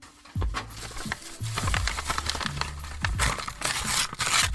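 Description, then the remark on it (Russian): Busy crinkling and tearing of wrapping paper as a heavy, nicely wrapped box is opened, with sharp rustles and rips following one another steadily and no one speaking. “На вид это обычная коробка, ну, слушайте, запакованная красиво, такая тяжелая. Давайте откроем ее вместе.”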